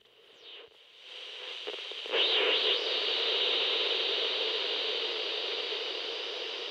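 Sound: radio static interference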